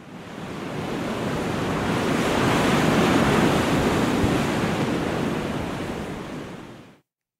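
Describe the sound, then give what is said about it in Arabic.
Steady roar of sea waves breaking on the shore, a broad continuous wash that swells slightly in the middle before cutting off, with no voices present. “بس رغم كل هاي الظروف في جملة بيرددها أهل غزة لولا البحر كان ماتت غزة”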